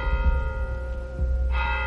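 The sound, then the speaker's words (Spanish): A church bell tolls midnight, its deep, resonant strike ringing out with long shimmering overtones before a fresh stroke lands near the end; no voices, fairly loud. “Y cuando sonaron las campanadas de medianoche, se desvaneció, mezclándose para siempre con el aire.”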